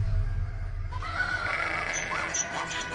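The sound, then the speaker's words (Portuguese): A donkey, one of several loaded with provisions, lets out a loud, drawn-out bray, rising after a second of low rumbling, with faint shuffling that could be hooves underneath. “Abigail ia montada no seu jumento e, de repente, numa curva, na descida, encontrou Davi e os seus homens que vinham na sua direção.”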